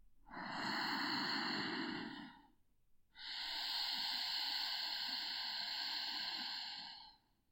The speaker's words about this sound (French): Pendant la respiration, prenez conscience de la contraction de l'arrière de la gorge. C'est la friction de l'air sur les parois de la gorge qui produit ce son raclé, qui ressemble au va-et-vient des vagues de l'océan sur la plage